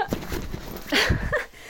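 A dog breathes heavily close to the microphone, with loud, breathy huffs and a stronger rasping exhale near the middle, plus a few soft low thumps.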